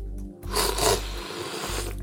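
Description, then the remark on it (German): A loud slurp of coffee sucked from a small tasting spoon during a coffee tasting, a hissing, airy rush lasting under a second, then fading into soft background noise. “Schlürfen wir ihn.”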